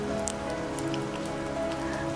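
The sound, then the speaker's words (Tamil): Steady rain patters onto a hard surface, a dense continuous hiss dotted with crisp individual drop ticks, at an even moderate level with a faint sustained tonal hum underneath and no voices. “அதாவது இந்த மழை வரும்போது நம்ம நமக்கு பிடிச்சவங்களை பற்றி நம்ம நிறைய யோசிப்போம்”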